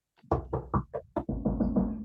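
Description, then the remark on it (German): About five firm knocks on a door in an uneven rhythm, fairly loud, followed by a longer sustained, droning sound with no talking. “Ähm, wir klopfen an die nächste Tür.”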